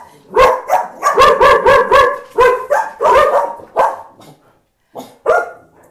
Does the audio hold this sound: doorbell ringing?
no